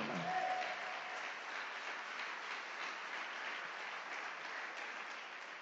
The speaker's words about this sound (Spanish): aplaudan bien, pues